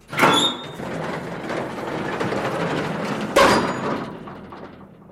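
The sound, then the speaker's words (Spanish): A soldier draws back a heavy bolt on a small armoured steel door in a granite wall: a sharp metallic clank, a steady grinding scrape for about three seconds, then another loud clunk that fades away. No voices. “Uno de los soldados se puso en pie, anduvo hasta la puerta y tiró un pesado cerrojo.”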